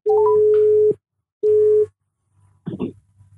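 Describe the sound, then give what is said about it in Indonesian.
A telephone ringback tone purrs twice in steady, evenly spaced bursts as a call is placed, followed by a brief muffled clatter like the line being picked up. “kenceng lagi langsung ya telepon”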